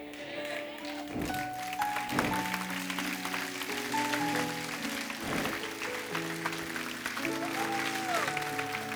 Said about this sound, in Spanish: Alguien puede gritar, aleluya. Alguien puede dar su mejor aplauso al Padre, al Hijo y al Espíritu Santo.